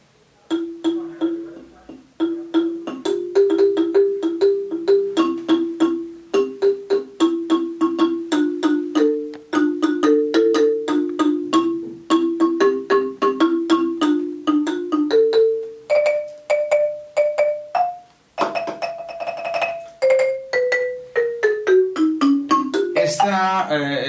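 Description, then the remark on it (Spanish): Bright, ringing notes of a carillon or marimba struck with a pair of mallets tipped with rubber balls, played alone in a quick, steady melody, finishing with a fast descending run of notes. “Se toca con un par de baquetas que tienen una bola de goma en la punta, ¿cierto?”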